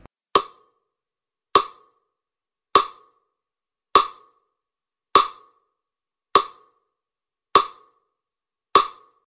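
A metronome ticks steadily, eight sharp identical clicks spaced evenly about a second and a quarter apart, each crisp and bright with a short decay, with silence in between and no voices.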